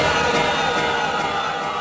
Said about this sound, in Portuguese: Se tiver flamenguista, levanta a mão, levanta a mão, geral, geral, geral. Vou te dar uma ideia, esse é o procedimento. Grita aí no baile a torcida do Flamengo.